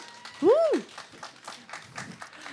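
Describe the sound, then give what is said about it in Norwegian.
Audience applause: a scattered patter of claps running throughout, opened by a single loud rising-and-falling whoop of cheering near the start. “Kan vi få en applaus for det?”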